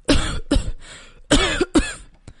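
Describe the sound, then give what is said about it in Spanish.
Two harsh coughs after a piece of apple goes down the wrong way, a brief pause, then two more strained, raspy coughs in quick succession, loud, with a faint throat-clearing catch at the end. “pero el trozo de manzana se le fue por mal sitio y empezó a toser.”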